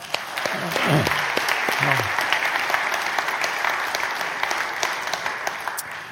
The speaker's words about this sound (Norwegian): Jeg har lyst til å gi dem en applaus.